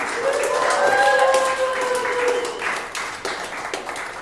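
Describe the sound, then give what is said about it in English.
A crowd claps steadily for a few seconds, welcoming a guest who is the news editor of FilmInk magazine, while someone lets out a sustained, rising cheer or whoop over the top. The applause stays fairly loud throughout, thinning only slightly at the end. “Ladies and gentlemen, please make some noise for”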